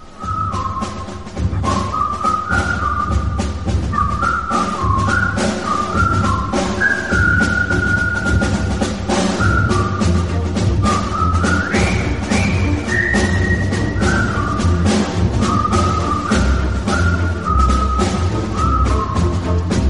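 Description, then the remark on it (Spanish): The whistled march theme from the film The Bridge on the River Kwai: a jaunty whistled melody carries steadily over a thumping band accompaniment, the bright tune stepping through short repeated phrases with a brisk, regular beat and no voices. “es el tema más reconocible de la inolvidable película del maestro David Lynn, El puente sobre el río Kwai.”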